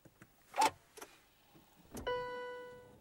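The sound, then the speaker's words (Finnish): A Peugeot 508 RXH four-wheel-drive diesel hybrid car starts up in a parking garage: a few soft mechanical clicks and a thump, then a burst as it comes to life, settling into a steady, even tonal hum. “Nyt tämä auto on käynnissä.”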